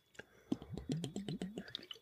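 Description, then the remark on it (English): Sipping of sparkling water, with wet mouth clicks and swallowing sounds, and a soft hummed murmur running underneath, all quiet. “Sparkling water.”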